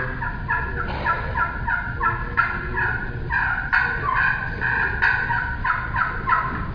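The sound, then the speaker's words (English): Turkey calls played on a slate friction call: a run of short, raspy clucks and purrs in a quick uneven rhythm, fairly loud, with no talking. “if you got to use a friction call is plucking fur on a slate call or glass call is about as good as it gets”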